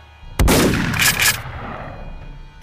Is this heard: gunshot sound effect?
yes